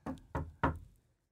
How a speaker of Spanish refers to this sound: ve, en la, ve una silueta de un hombre parado frente a la puerta. Y de pronto toca tres veces